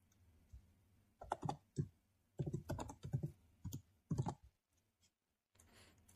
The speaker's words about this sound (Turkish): Tamam. Sa- sana yazıyorum WhatsApp'tan. Bekliyorum.